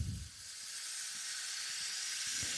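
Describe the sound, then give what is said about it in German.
A steady hiss of helium gas being sprayed from a nozzle, continuing evenly for a few seconds with no one speaking. “Also du sprühst jetzt mit Helium in diese.”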